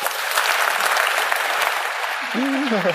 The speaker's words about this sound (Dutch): Geef de sprekers een daverend applaus.